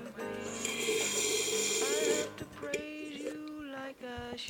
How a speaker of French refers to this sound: D'ailleurs, ma dernière gorgée de café, vous avez le droit de l'entendre.